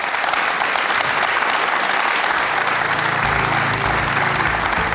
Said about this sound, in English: Uh, and please give a round of applause to our panel.